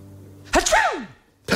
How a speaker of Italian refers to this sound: Scusate, tra un colpo di tosse e eh. uno starnuto. Eh, curati.